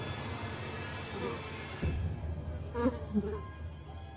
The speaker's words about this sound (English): Drowsily, the flies were buzzing.